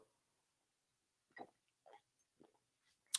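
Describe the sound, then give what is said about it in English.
Someone takes a quick sip of water: three soft, brief gulping swallows spaced about half a second apart, ending in a sharper wet click, with no talking. “Excuse me while I take a quick sip of water.”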